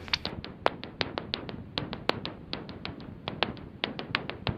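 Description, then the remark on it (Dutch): Serotine bat echolocation calls at around 28 kilohertz through a bat detector: a quick, slightly irregular run of sharp, dry clicks and smacks, several per second, steady, with faint hiss underneath and no voices. “Nou, we hebben er vast nog wel eh, een geluidje van, dus dat laten we even horen.”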